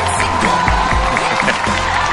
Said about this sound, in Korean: 오늘 게스트 모시겠습니다, 여러분. 박수로 환영해 주시기 바랍니다. 어서 오세요. 박수 부탁드리겠습니다.